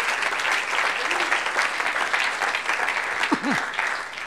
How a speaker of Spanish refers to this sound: Ah, gloria a Dios. Démosle un aplauso. Démosle un aplauso al Señor.